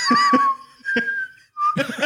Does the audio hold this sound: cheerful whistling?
yes